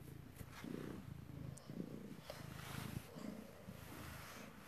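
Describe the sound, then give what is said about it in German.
A cat purrs while cuddling up against a mobile phone, a steady low rumbling throb that pulses in rhythm with its breathing, loud and close, with no voices over it. “nicht ans Handy kuscheln.”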